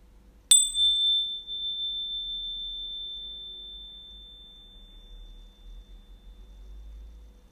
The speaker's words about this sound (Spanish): ¿Escuchaste la campana recién? Vamos a escucharla de nuevo.